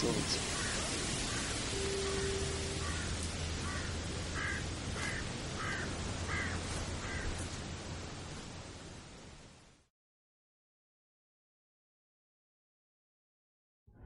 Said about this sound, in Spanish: Las aves se levantaron en vuelo.